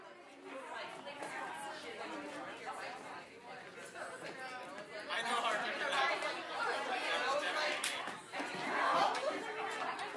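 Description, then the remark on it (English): A dense murmur of many overlapping voices, a lively audience chattering continuously with a few scattered laughs, growing louder and busier toward the end. “Settle down, ladies and gentlemen. Settle down, settle down, settle down, settle down, settle down.”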